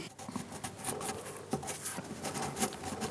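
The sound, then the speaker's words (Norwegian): A pen scratches and scribbles on paper up close as a founding document is signed, a quiet irregular patter of short strokes and faint rustles with no talking. “Nå gjenstår det kun å få underskrifter på stiftelsesdokumentet. En lyd som er litt vanskelig å fange.”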